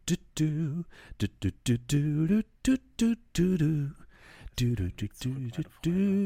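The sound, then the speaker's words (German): A single voice cheerfully hums and doodles a bouncy tune in short, choppy syllables, fairly loud, with brief pauses between phrases and no other sounds, imitating a night watchman whistling and humming outside a door as he slowly moves away. “dann wieder langsam, wie sich das Pfeifen und das Dudeln entfernt.”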